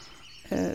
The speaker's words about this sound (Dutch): Verder eh, kwamen spontaan nog aanwaaien onze tortelduiven. Die zitten iedere ochtend en iedere avond op het eh, dak van de schuur.